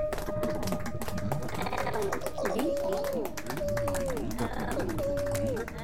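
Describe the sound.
An audience claps steadily in a dense, continuous patter while voices cheer and whoop as a performer goes up the steps onto the stage, with repeated rising and falling tones over the applause, loud throughout.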